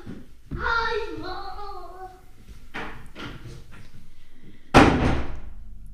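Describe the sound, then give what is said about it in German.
A door swings shut with a single solid slam near the end, following a high voice and a few softer knocks and rustles of handling. “Und das war die, Tür, Tür genommen.”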